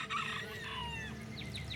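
bird, chickens clucking and crowing

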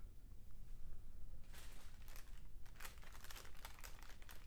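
household object, fireplace fire crackling

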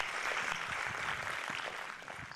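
crowd, applause

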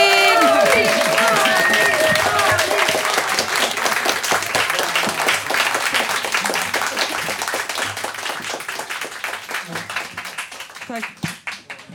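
crowd, standing audience applause

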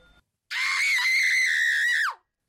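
human body sound, person screaming

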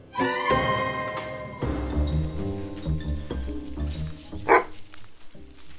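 animal, dog barking

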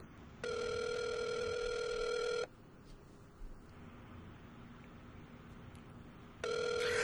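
signal or alarm, outgoing phone call ringing

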